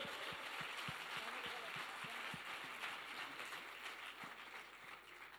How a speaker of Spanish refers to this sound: ¿Cuántos decimos? Amén. Dale un aplauso fuerte.